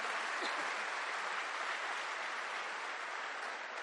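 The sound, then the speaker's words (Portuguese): A loud, sustained round of applause from a crowd, dense clapping filling the space steadily without pause for the full few seconds. “Pode dar uma salva de palmas bem forte.”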